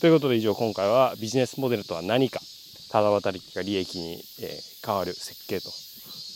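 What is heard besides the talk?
cicadas singing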